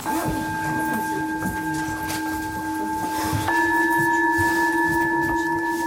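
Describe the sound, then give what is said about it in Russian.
Alexey Popov strikes a metal singing bowl with a soft mallet. It is one of several bowls of different sizes on a table in a hall, shaped like inverted bells without clappers. It hums with a steady, shimmering ring of layered tones; partway through, a second soft mallet strike swells the sound and shifts the pitch slightly higher. No voices. “Прикосновением мягкого пестика Алексей Попов извлекает из них удивительные, тонкие, мелодичные звуки.”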